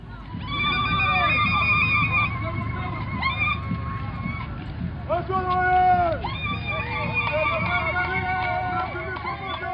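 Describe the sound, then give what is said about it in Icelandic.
High, trilling ululation from several women rings out joyfully over a dense crowd as proud soldiers march with a steady low rumble of feet, on a day of celebration in 2011. The joyful, wavering cries rise and fall throughout. “Við heyrum hér stolta hermenn, marsera og konur skríkja að fögnuði.”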